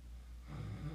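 A person makes a rough, nasal snoring sound that starts halfway through, a short rumbling snort against a quiet background, like someone imitating a snore.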